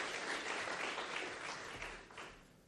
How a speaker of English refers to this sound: So, uh, why don't we uh, give him a welcomed applause for coming back two weeks in a row? Thank you. Thank you.